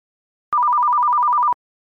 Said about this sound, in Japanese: そんな熱帯夜のある日家の固定電話の着信音が鳴った